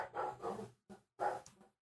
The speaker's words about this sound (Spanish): Me disculpen, tengo un vecino que tiene un perro que pasa ladrando, pero eh, eh, la idea es que esto sea natural.